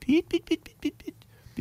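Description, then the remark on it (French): A person imitates the little chirping birds an alarm clock starts with, making about six short, high, quick 'pip' sounds, with a brief pause before the last chirp. “Ça commence par des petits oiseaux.”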